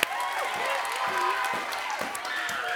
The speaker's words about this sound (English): That, yeah, you can applaud that. That's awesome.